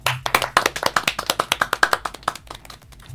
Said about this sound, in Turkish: Ve ben bununla ilgili bir alkış almak istiyorum zaten.